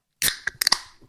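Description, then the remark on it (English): A drink can is cracked open: a sharp snap of the tab followed by a few quick crackling pops and a short fizzing hiss that fades out, with no voices. “Just while we pause, I'm just going to crack this can open.”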